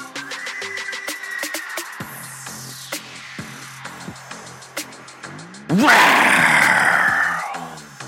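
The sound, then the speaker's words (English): A man bellows a loud, raspy growling roar in imitation of a tiger, one sustained burst of about two seconds that follows a quieter stretch of background noise. “that's my that's my tiger roar.”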